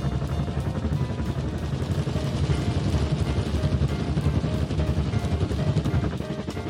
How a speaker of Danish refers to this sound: De store vaskebørster på begge sider af bilen begynder at snurre rundt og kommer langsomt op i fart, så de rigtig kan vaske bilen grundigt. Hvorfor larmer vaskehallen så meget? Det plejer den ikke at gøre, siger faren til sig selv.